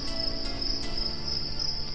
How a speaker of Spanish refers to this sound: Tampoco voy a dormir esta noche. Ese grillo me está volviendo loco.